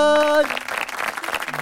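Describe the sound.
A brief held voiced tone gives way to a dense, steady burst of applause from many hands, a rapid crackling patter that stays fairly even for over a second.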